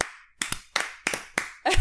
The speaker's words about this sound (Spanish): Bien ahora sí te voy a aplaudir.